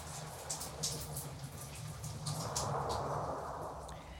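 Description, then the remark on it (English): Steady rush of shower water running continuously, a dense hiss with a low hum underneath, swelling slightly partway through. No voices are heard. “I also think we should note she's in the shower.”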